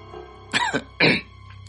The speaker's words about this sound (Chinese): 高栋咳嗽了一声，示意等下再讨论。